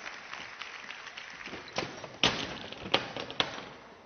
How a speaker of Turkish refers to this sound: Milli Piyango İdaresi yetkilimiz ve noterimiz için sizlerden büyük bir alkış rica ediyorum efendim.